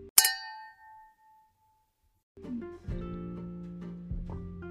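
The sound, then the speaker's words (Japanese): A single bright clink of glasses in a toast with cider from a small bottle, made by Japan's youngest brewer, rings out near the start and fades quickly, followed by a pause and then a low, sustained background hum or murmur. “はい、じゃあ、乾杯からいきたいと思います。はいはい、乾杯。乾杯。”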